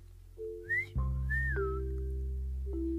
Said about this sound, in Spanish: Así que se levantó sobre las patas traseras, estirando el hocico y soltando un silbido de alegría.